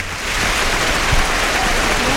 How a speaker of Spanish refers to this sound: aplaudido y jaleado por el público. Ha llegado a los tendidos es que ha sido muy emocionante.